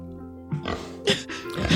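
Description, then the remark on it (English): A person voices a series of snorting, grunting pig oinks, fairly loud, in quick nasal bursts over under two seconds with no other talk. “Or has he just figured it out from the pig shaped uh, impression?”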